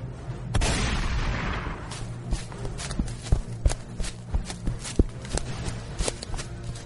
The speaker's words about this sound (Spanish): Cuando Lucía y John volvieron a casa, escucharon un disparo. Lucía, muy preocupada, fue a ver qué ocurría.